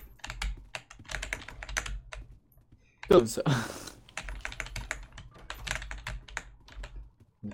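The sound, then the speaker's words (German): Rapid, loud computer keyboard clicking runs nearly the whole time, dense clattering keystrokes, with a brief spoken phrase breaking in around the middle. “Digga, du klickerst hier viel zu laut mit deiner Tastatur.”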